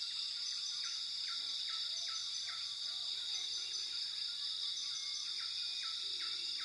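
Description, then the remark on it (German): Steady rainforest ambience: a dense, high insect drone fills the background while a repeating chirp pulses at a regular rhythm, with faint bird calls now and then. No voices. “Höre einmal genau hin und nimm den Klang des Regenwaldes wahr.”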